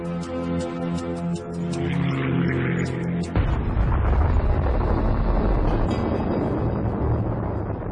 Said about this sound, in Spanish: en el campo de prisioneros 17, Lester Tenney ve la explosión